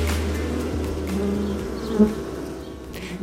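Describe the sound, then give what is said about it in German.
A steady drone of many bees swarming out and buzzing together, a continuous low hum with individual insects weaving in and out, one passing briefly louder near the middle. “Die Bienen schwärmen aus”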